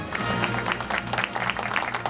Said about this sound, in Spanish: Momento para el cine, momento para recibir, con el aplauso que se merece